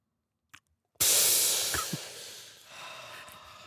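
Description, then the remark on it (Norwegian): A long, deep breath drawn in sharply after a moment of silence on the Norwegian radio news programme Urix, an airy rushing hiss that holds for nearly three seconds and eases slightly toward the end. No one speaks. “Et pust som ikke er hørt på radioen, er et bortkastet pust, Ja.”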